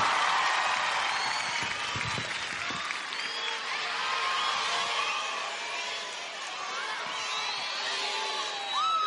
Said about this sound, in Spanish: El aplauso para Sergio Freire. Adelante, dale, Sergio.